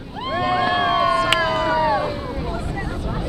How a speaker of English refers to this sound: Some 50 visitors from around the world lean over the rail of the whale watching boat Porta Mia they scan the clear blue waters of the Caribbean Sea, searching for humpback whales.